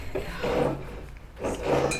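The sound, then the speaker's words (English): Two gritty twisting and scraping bursts as a champagne bottle's cork and foil are worked loose, with faint glassy clinks and no pop yet. “How about a champagne cork?”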